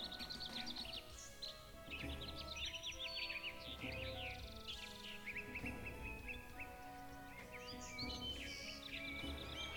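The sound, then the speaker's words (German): Busy background birdsong in a video game: many bright chirps and warbling calls overlapping continuously over a soft low ambient bed, mixed in stereo so the birds shift between left and right, with no one talking. “Hier sind es ja die Vögel, die auch richtig an den Stereo-Mix angepasst werden.”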